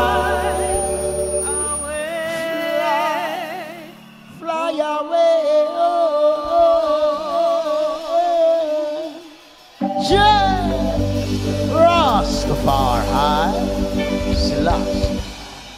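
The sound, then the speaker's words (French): A reggae song by a singer-percussionist plays loudly, with a sung vocal melody over steady bass and backing instruments. The arrangement shifts abruptly twice, thinning out before returning fuller. “Ce que vous venez d'entendre, c'est …, messieurs, ce, chanteur percussionniste qui est décédé à l'âge de 73 ans.”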